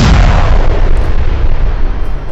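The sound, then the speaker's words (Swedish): A loud explosion with a heavy low-end boom that rolls on as a dense, rumbling roar for a couple of seconds, with no voices. “Det där kommer inte skada mig och sen så hör du en explosion.”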